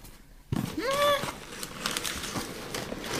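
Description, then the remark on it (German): Paper crinkles and rustles steadily as the smaller of two paper-wrapped gifts is unwrapped, with a short rising vocal exclamation over the first crackles, then continued crisp tearing and crumpling until the end. “Ich sehe Papier, viel oh. Papier.”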